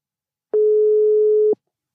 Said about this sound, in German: den rufen wir jetzt mal an. So, auch gleich mal, ob du es tuten hörst. Ja, hörst ne?